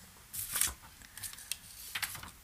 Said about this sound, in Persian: من اینا رو خلاصه نوشتم یه ورقی بزنم